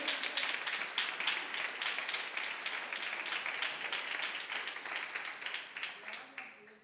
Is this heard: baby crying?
no